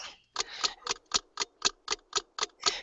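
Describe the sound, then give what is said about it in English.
A clock ticks steadily and crisply, about four sharp, evenly spaced ticks per second, with nothing else audible around them. “Tick tock, tick tock goes the clock.”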